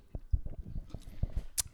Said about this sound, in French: Avant de te poser la prochaine question, je vais boire une gorgée de mon Sprite,